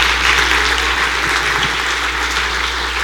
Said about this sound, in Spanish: Dele palmas al Rey si usted lo cree